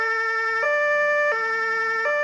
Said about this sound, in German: Da kommt's nächste Martinshorn.